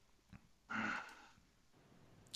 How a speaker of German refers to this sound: ich, ich, höre ein Schnaufen aus der anderen Leitung.